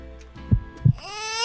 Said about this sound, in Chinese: 出生时的心跳声。